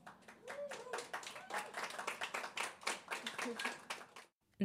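Applause from a small group: a steady patter of many overlapping hand claps, fairly loud and dense, lasting a few seconds before stopping abruptly.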